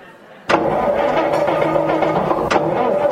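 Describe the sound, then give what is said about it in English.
A van engine cranks and catches abruptly, then settles into a steady, loud rumbling idle with a brief surge of revving near the end; no voices. “and then I hear the, the engine start, and I have an engine starting sound effect that I'd like to play for you at this time.”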